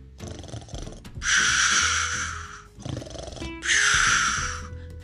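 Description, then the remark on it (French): Loud, exaggerated snoring of a sleeping wolf: two slow cycles, each a low rumbling inhale followed by a harsh, breathy exhale, with no talking. “Le ventre bien rempli, le loup s'endormit et se mit à ronfler si fort que les murs de la maison en tremblaient.”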